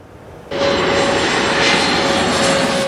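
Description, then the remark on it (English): An airplane engine at Vancouver International Airport (YVR), Canada, roars in suddenly after a quieter moment, then holds a loud, steady rushing drone with a high whining tone, with no one speaking. “If you spend long enough plane spotting at YVR, you'll see all the latest aircraft in aviation.”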